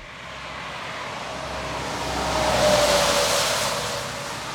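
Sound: road traffic passing by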